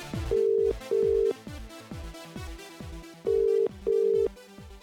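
A telephone rings for a live caller on the radio show 90s Revival, in a steady double-burst pattern, two pairs of loud electronic tones about three seconds apart, playing over a thumping music beat with no talking.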